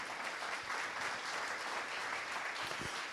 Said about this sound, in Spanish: Por eso, dale un fuerte aplauso al Señor.